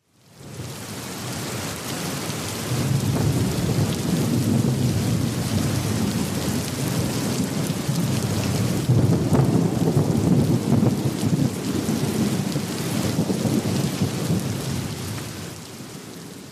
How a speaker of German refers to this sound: Also mein Wunsch war, dass das Geräusch einen Sturm darstellt. Das ist natürlich akustisch jetzt schwer darzustellen.